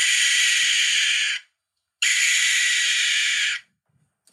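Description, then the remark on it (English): A barn owl lets out two long, harsh, hissing screeches, each lasting over a second with a brief silent gap between them, loud with no voices. “Combine that with the fact that they really like to hunt in open areas like cemeteries and the fact that they sound like this.”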